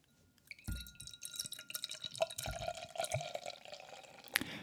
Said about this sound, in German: Hör dir das Bier mal an.